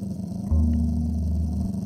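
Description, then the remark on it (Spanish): A mixed-breed dog growls in a low, steady rumble lasting about a second, fairly loud, as it stops before a piece of meat on a porch, with no one speaking over it. “Al llegar al portal, uno de ellos se detuvo antes del trozo de carne y emitió un gruñido”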